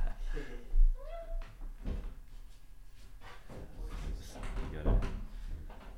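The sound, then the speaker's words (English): A cat tries to get out of a room: a short meow near the start, then scattered thuds and rattles like a door being pushed or pawed, with faint indistinct voices in the background. “there you are that cat wants to get out of the room”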